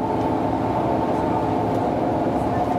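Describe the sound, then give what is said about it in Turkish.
A steady, dense rumble of a moving metrobus in Istanbul in the evening, the engine drone and road noise holding constant throughout, with faint murmuring voices blended into the ambience. “Akşam saatlerinde ise İstanbul'un en çok kullanılan ulaşım aracı metrobüsteki manzara hiç iç açıcı değildi.”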